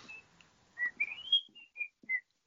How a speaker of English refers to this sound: I used to walk around Tesco's whistling the uh, Great Escape theme. It's yeah. a great whistling in your job theme, isn't it?